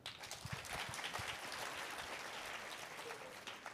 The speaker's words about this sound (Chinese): 来，给我们拍拍手。